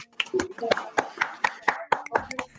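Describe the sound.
Steady, evenly spaced hand claps, about a dozen sharp bright smacks in quick succession, with a voice murmuring underneath, applauding a guest from the Salvando el Silencio project at the start of a live-streamed interview.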